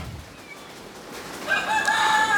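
After a quiet stretch, a rooster crows partway through, a loud, strained, wavering call rising out of the background and holding to the end with no one talking.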